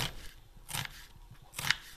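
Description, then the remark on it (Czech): A knife finely chopping an onion on a board: three crisp, bright strikes spaced unevenly over two seconds, with a faint scraping hush between them and no voices. “Teď nakrájím na jemno, na eh, jemno cibuli.”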